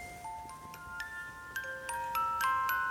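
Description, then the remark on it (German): A music box plucks a slow, gentle lullaby, its bright metallic notes ringing and overlapping with a faint mechanical ticking underneath, at a soft volume; its highest tine has broken off, so the top note is missing. “das Stück, was gespielt wird hier von Sean, ist übrigens GEMA-frei und zwar ist das äh, von Mozart, das Wiegenlied”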